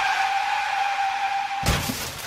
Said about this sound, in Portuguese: bateu um carro no restaurante.